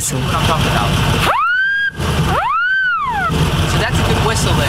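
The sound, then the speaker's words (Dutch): A loud, harmonic car horn, made by car manufacturers to sound like a wolf whistle, blares out a two-part wolf whistle: a quick upward swoop, a short pause, then a longer rise and fall, all over steady background noise. “Zozeer zelfs dat autoproducenten klaksons beginnen te ontwikkelen die klinken als de wolf”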